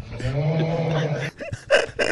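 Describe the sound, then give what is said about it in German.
A loud, drawn-out snore with a low, buzzing, growl-like tone that holds steady for over a second, followed by a few shorter rough snorting bursts; the snoring was heard throughout the whole town and went on all night. “Man hat das Schnarchen tatsächlich in der ganzen Stadt gehört und es ging irgendwie so die ganze Nacht genauso.”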